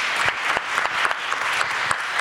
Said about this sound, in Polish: Wielkie brawa dla nich, słuchajcie.